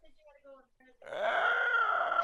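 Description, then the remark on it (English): A person vocally imitates a creature's dying screech: a short warbling, tonal cry that breaks into a loud, harsh, raspy screech held for over a second. “It then lets out a dying screech.”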